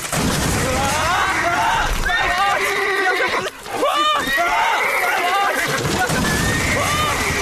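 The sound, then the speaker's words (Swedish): A horse whinnies repeatedly and loudly as it comes through a studio roof, over a continuous racket of clattering hooves and crashing debris, with a brief dip in the din midway through. “En häst kom genom taket!”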